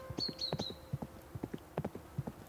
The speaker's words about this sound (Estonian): tegelikult kõlabki hobuse kabjamüdin täpselt nii nagu filmides. selline tume ja madal, ühtlane, rütmikas müdin ja sinna vahele mingid korsatused